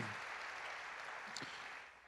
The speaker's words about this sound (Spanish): ¿Qué le parece si le damos un aplauso al Señor porque es bueno? Amén. Dios es bueno.